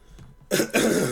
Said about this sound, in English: Right as I start screaming, I start coughing and choking, and throat starts getting scratchy, and it's like my sickness comes back as soon as I start screaming.